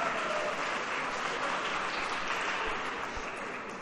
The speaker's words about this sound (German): Zunächst sagt der Applaus schon viel aus über die Frage.